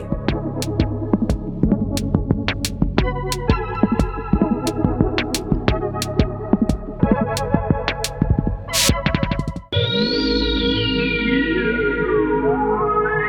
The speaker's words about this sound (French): et donc il parle de son Prophète 10 et il est content, et puis soudain il joue. Et là tu dis, ah ouais